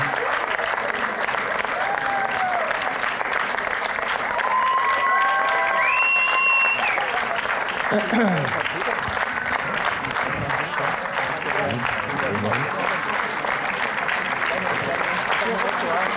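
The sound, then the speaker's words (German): An audience claps steadily and densely for about sixteen seconds, the applause staying loud throughout, with a few short high whistles early on and scattered crowd voices mixed in. “Applaus, ganz wichtig, ja.”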